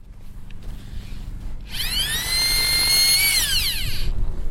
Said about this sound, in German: An einem stürmischen Tag im Mai arbeiten Forscher auf dem gefrorenen arktischen Ozean, 500 Meter vom Ufer entfernt. Mit einem Hohlbohrer schneiden sie Bohrkerne aus dem Packeis.